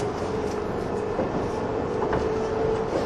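A 185 series limited express train, the Odoriko No. 106 bound for Tokyo, runs between Izukyu-Shimoda and Atami: a steady, dense low rumble of wheels and motor with a faint sustained hum riding on top, staying loud and even throughout with no voices.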